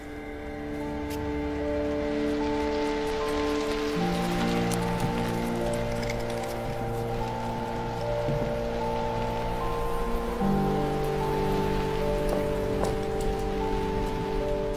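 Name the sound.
heavy rain pouring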